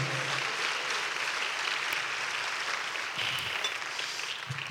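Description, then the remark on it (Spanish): Sustained applause from a large crowd, a dense, steady wash of clapping that holds at an even level for the full few seconds, with no voices standing out, given in praise of God. “Denle un fuerte aplauso a nuestro Padre Celestial.”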